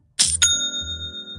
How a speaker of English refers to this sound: It's the sound of another sale on Shopify.